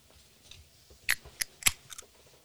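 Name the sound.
drink can being opened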